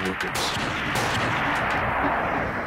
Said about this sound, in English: War Metal leveled his rifle on the engine portal and opened fire into the crowd